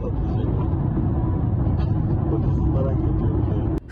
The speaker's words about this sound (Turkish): hız göstergesi saatte 147 kilometreye kadar çıksa da görüntünün çekildiği araç hafriyat kamyonun hızına yetişemedi.